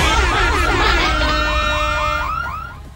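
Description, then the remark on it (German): A loud electronic donation alert plays on its own, a rapid run of repeating warbling chirps and bright synthetic tones that sound almost alarm-like before tapering off slightly at the end. “Wir brauchen einfach mal jemanden, der diesen Sound hier aktiviert. Here comes the money. Oberfette Donation.”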